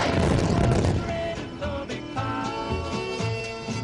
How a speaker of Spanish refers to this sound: Caballeros, listos para la explosión. Inicio la cuenta atrás. El experto en explosivos, George Kistiakowski, comprobaba los cálculos de Fuchs y Paidels mediante miles de explosiones.